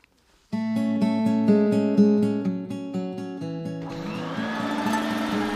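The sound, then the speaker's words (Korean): A bright, rhythmic musical sting plays for a few seconds, then a vacuum cleaner roars on as someone vacuums at home in the morning, and it keeps whirring steadily to the end, with no one talking. “왜 갑자기 청소기를 돌려?”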